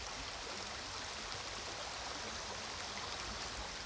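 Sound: flowing river water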